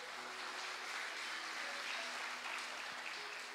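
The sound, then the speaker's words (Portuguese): An audience applauds God at night, a dense, even wash of clapping from many hands holding at a constant level for a few seconds, with no voices standing out. “Você pode dar um glória a Deus e aplaudir a Ele por isso nessa noite.”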